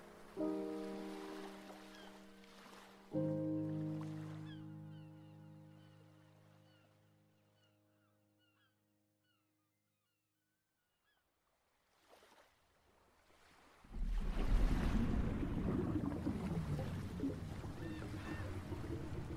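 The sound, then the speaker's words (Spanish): Sustained low tones fade into near silence, then a loud rush of ocean surf at a beach washes in and keeps churning steadily through the end, with no one speaking. “Pues si somos amantes del mar, después de escuchar esto, solo quisiéramos tener el poder de teletransportarnos a una playa y disfrutar todo esto de frente.”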